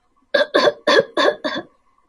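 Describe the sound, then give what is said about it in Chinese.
A voice imitates the long-tailed rat arching its back and coughing hard, with five short, forceful, voiced bursts in a quick, even rhythm, the last one slightly softer, with no other talk. “长尾鼠听笨狼这么说，顺便弓起背，使劲儿的咳嗽两声。”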